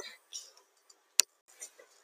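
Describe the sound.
A soft, breathy voice imitates a clock ticking with a few quiet clicking syllables, interrupted once by a single sharp click, in otherwise near-silence.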